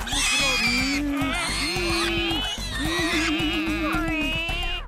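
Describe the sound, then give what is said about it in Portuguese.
Three people running back and forth on all fours imitate wild boar grunts: a string of loud, drawn-out nasal grunting calls, about four in a row, overlapping with almost no pause between them. “Logo ali, os três começaram imediatamente a correr de gatas, de um lado para o outro, imitando os grunhidos dos javalis selvagens.”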